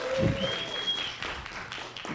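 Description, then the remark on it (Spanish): A group breaks into applause for their designer, a dense, steady patter of many hands clapping for about two seconds, with a faint thin whistling tone briefly drifting over it. “Aplauso para”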